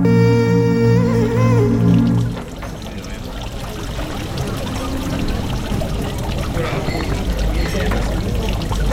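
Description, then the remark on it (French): Water is poured over a cap in hot weather, first with a brief rising, ringing gurgle, then a steady, fairly loud splashing and spattering that continues for several seconds. “Tu, veux que je te mouille ta casquette toi aussi”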